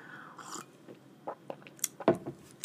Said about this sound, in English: Take a little swig of the water for the people at home.